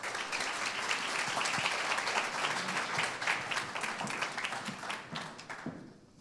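A room full of people applauds steadily, a dense wash of many hands clapping at once that holds strong for several seconds before thinning out and fading toward the end.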